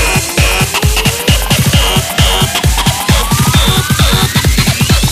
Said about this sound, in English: More distortion. I said more distortion.